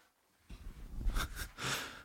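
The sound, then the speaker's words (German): A person makes a rough, breathy snorting and huffing noise, a vocal imitation of a coughing lion, in a few quick bursts with no speech. “Das war ein Löwe, der Husten hat.”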